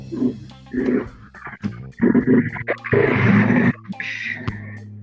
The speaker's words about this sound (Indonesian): jadi suara knalpot barusan kira-kira banget ya?